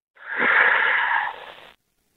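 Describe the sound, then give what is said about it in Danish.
A deep, breathy inhale lasting about a second and a half, steady, as a person breathes in while starting a mantra, then it stops abruptly into silence as the breath is held. “ved at trække vejret ind, og så sige, kom Helion.”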